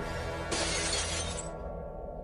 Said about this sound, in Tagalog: Bigla ring nabasag ang salamin sa ibabaw ng dining table at nagsili para ng iilang mga gamit sa kusina.